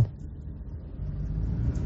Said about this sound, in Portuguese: É, se, se não, não tá pronto, eu queria saber por que, que esses caras tá passando com esses caminhão carregados de cascalho aqui, fazendo poeira pra, pra nós aqui. O asfalto não tá pronto, o que, é que esses caras têm que passar aqui?